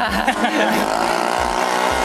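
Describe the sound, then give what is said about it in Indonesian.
A loud, rough vehicle exhaust roars steadily for about two seconds, a dense throaty rumble with a buzzing engine drone that wavers slightly in pitch as it goes by. “iklan knalpot di sini mah. Tolong dimaklumin beberapa kali emang.”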